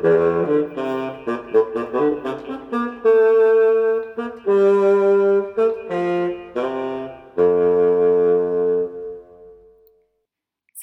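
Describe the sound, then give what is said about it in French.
A bassoon, the lowest, deepest instrument of the woodwind family, plays a short melodic passage of low, reedy notes, some quick and detached, others held longer, before the last note fades into silence; no one speaks over it. “Et finalement, on a le basson qui est l'instrument le plus bas, le plus grave de la famille des bois.”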